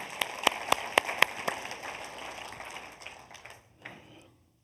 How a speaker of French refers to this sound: Est-ce qu'on peut donner une bonne main d'applaudissement, là, pour le cap, pour tout ce que Dieu fait? Amen.